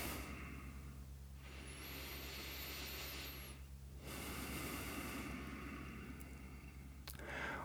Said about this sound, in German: Wir schnaufen einfach mal tief ein und aus